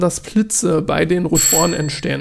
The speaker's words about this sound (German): Das war eine Klingel im Hintergrund.